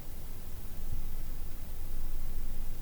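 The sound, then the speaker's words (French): Near-silence inside the anechoic chamber of IRCAM in Paris, which absorbs 99.99% of sound: only a faint, steady hiss with a soft low rumble underneath, a residual noise level of about 9 decibels, no voices or distinct sounds, unchanging for about three seconds. “J'ai enregistré le silence de la chambre anéchoïque de l'IRCAM, à Paris.”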